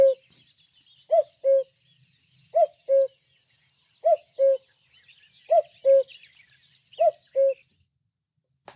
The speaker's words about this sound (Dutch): Ik doe nog even de koekoek nu even lekker hard.